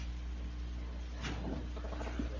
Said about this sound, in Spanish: La escuché como un portón. Sí, sí, sí, yo también escuché lo mismo.